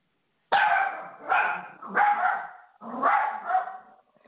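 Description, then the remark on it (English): A watch dog barks loudly, five or six sharp, harmonic barks in quick irregular succession, one running into the next, with no talking. “I'm sorry, we have a watch dog here today and every Sunday.”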